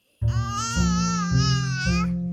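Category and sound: human body sound, baby babbling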